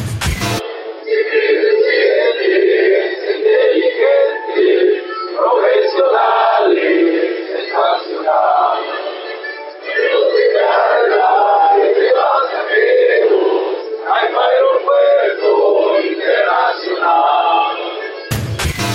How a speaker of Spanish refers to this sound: A un año de su apertura, el Aeropuerto Internacional Felipe Ángeles estrenó su himno y suma vuelos y destinos, pero los pasillos y mostradores todavía lucen semivacíos. Escuchemos el himno.